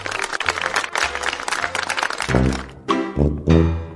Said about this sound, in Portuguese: Primeiramente eu quero palmas para mim, por favor, pessoal.